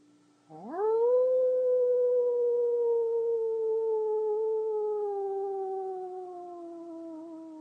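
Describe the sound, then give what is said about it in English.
A person lets out one long, sustained wolf-like howl during a guided meditation, rising sharply at the start and then holding a steady, slowly falling tone for several seconds, loud, with no talking. “You know how to howl.”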